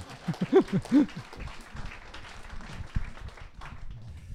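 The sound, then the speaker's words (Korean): An audience claps in a steady, scattered patter that keeps going for several seconds, following a brief burst of voices and laughter at the start. “박수 치시면 제대로 치시던가.”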